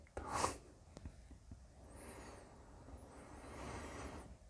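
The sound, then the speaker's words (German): A dog gives a short, sharp snort, then keeps breathing softly and steadily in slow, relaxed, airy breaths. It is quiet, and no one speaks. “Übrigens, wenn du manchmal ein entspanntes Atmen hörst, das ist mein Hund der auf seine ganz eigene Art und Weise diesem hier Gesagten zustimmt.”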